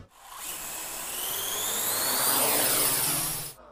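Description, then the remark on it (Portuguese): A steady, high-pitched buzzing whir of the propellers of a delivery drone rises slightly in pitch as it swells and holds for a few seconds, then cuts off abruptly. No voices are heard. “Isso quando a entrega não for de drone, né?”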